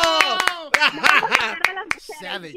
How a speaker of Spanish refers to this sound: Gracias, otro aplauso.